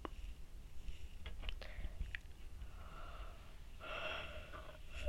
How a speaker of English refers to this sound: excuse me. I say excuse me when I yawn.